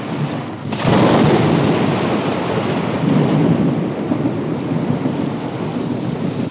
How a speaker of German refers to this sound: Hoffentlich erreiche ich noch vor dem Regen ein Dach über dem Kopf. Das Gewitter? Eins, zwei, drei, vier, fünf,